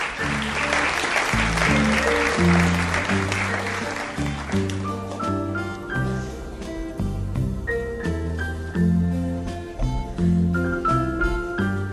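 A festival audience applauds loudly for about four seconds as a duo is invited on stage and a band starts playing underneath, then the clapping fades and the music carries on alone.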